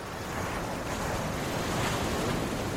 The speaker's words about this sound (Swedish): Jag tänker att vi lyssnar på lite härligt vågljud här nu.